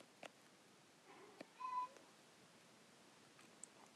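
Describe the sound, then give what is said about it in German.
A single short, whiny meow from a pet cat whining again, fairly soft, with a few faint clicks and taps around it. “Meine Katze jammert schon wieder.”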